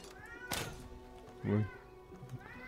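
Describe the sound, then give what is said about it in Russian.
A cat meows clearly, with a louder, drawn-out cry in the middle and a fainter mew near the end, over a steady low background hum. “Кот, сдохни ну,”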